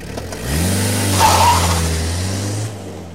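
A car engine revs up loudly and holds a strong, steady roar for a few seconds before easing off, heard alone without any talking.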